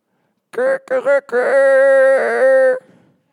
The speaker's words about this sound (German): Und als ich es getan habe, krähte der Hahn.